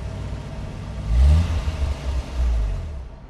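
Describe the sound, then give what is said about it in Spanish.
A rental car's engine rumbles, then revs up sharply with a rising whine and surges again as the car pulls away from an airport, loud, with no voices. “Del aeropuerto salió en vehículo de alquiler hasta el departamento de Alessandra”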